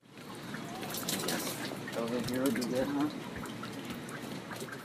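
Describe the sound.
Water pours in a steady splashing stream, as from a watering can onto plants outside a houseboat in the North Harbor of Petersburg, Alaska, with a faint voice briefly heard in the middle.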